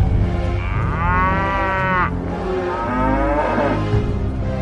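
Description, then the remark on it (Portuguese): Two long, deep, loud lowing calls from oxen drawing a new cart, one after another over a steady low rumble, with no voices present. “Colocaram a arca num carro de bois, novo, e a tiraram da casa de Abinadab”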